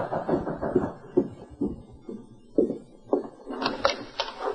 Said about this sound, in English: at the Miller ranch house, Jim Miller was in the living room when a knock sounded at the door.